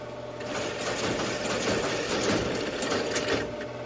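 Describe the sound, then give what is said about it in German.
A computer's punch card reader pulls in a stack of punched cards, each card a command, as the computer reads in a program. A fast, continuous mechanical clatter, dense rapid ticking over a steady motor hum, stays fairly loud for the whole stretch. “Zum ersten Mal in ihrem Leben hört Lisa das Geräusch, das der Computer macht, wenn er ein Programm einliest.”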